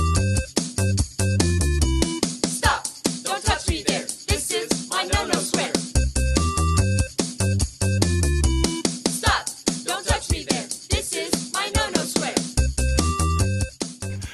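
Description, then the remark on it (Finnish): A loud, upbeat dance track from a social media dance video plays throughout, with a thumping bass beat, bright synth stabs and a sung or rapped vocal line riding over a steady, driving rhythm. “Tällaisen musiikin soidessa samaan aikaan ihmetellään, että miksi seksuaalinen väkivalta lisääntyy”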